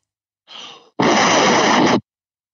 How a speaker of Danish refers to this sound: Fordi når jeg tæller til tre, så skal du puste rigtig hårdt ind i telefonen. Lige så hårdt du kan ja, okay.